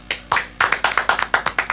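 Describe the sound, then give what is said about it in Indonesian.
A short burst of applause: about a dozen quick, sharp hand claps in an uneven rhythm, fairly loud, with no talking. “Tapi kita harus tepuk tangan untuk kontennya persis official”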